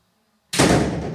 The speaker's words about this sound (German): Jetzt mach bitte die Tür zu, aber leiser als gerade eben.